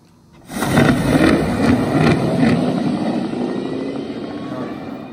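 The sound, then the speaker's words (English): A four-wheel dragster's engine erupts into a loud, sustained roar after a brief quiet moment, with a few sharp crackles early on, then gradually fades as the car pulls away down the strip on a quarter-mile pass. “it's a four-wheel dragster, a four-wheel car or dragster.”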